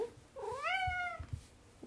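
A single drawn-out cat meow, rising then falling in pitch, clear, followed by faint low thumps and rustling, as food is put out for the cats of a home with seven cats.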